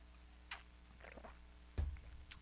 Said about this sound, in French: Ah, gorgée d'eau.